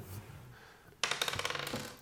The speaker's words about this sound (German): Wir können heute würfeln.